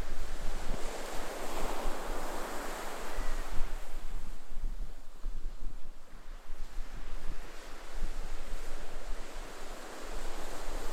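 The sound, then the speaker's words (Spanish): Pacific Ocean waves break and wash ashore in a continuous, steady roar of surf, with a gusty wind rumble underneath and no voices present. “Y que las sensaciones y reflexiones que te brindó el sonido del océano Pacífico te acompañen hoy y siempre.”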